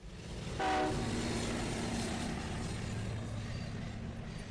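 A train rumbles steadily past as a short horn blast sounds near the start, followed by continuous rolling rail noise that holds at a fairly loud level throughout.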